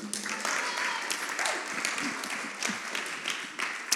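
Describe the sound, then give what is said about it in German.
A crowd applauds with steady, dense clapping for a few seconds, a broad crackling wash of many hands with some murmuring voices mixed in. “Applaus für die beiden noch.”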